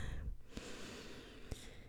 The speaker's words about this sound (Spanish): Y toma una respiración profunda.